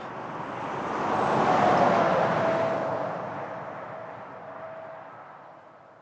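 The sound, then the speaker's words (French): A large truck rumbles past, its roar swelling to a peak in the first couple of seconds and then slowly fading, with a faint steady whine riding on top. “Un gros camion venait tout juste de l'engloutir.”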